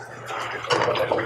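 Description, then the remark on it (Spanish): Liquid pours steadily into a cup for about a second, a close, bubbly trickle with rising splashy texture as it fills. “Échale, te espero.”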